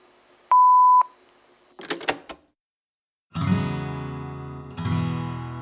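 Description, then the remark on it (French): A single steady electronic beep rings out for about half a second, like an answering machine tone, followed by a few clicks and then a burst of layered music. “Après la tonalité, c'est moi qui vous laisse un message.”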